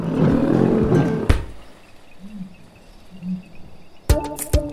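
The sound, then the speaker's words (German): A deep, rumbling lion roar fills the first second, cut off by a sharp thump, followed by a quiet stretch and a few crisp clattering hits near the end. “Ein Tritt kann sogar einen Löwen umhauen.”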